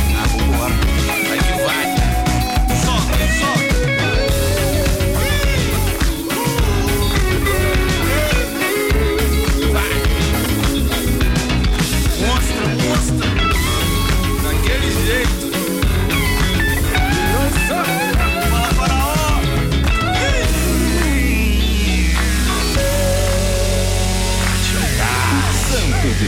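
A song released in 2019 plays loud throughout on the radio station Rocket 977, with vocals over a steady, full beat and layered instruments, shifting into a sparser, different section near the end.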